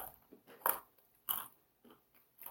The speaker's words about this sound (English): Those are really well roasted. Almonds. I was gonna say that is some crunch. I'm surprised.